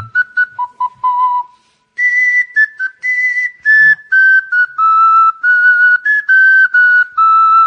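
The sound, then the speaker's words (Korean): A melody played on a wooden whistle flute, clear pure tones stepping between low and higher pitches in short phrased notes, some held longer, with no talking over it. “이건 흑 흑필이는 나무 필이와 는 달리 네.”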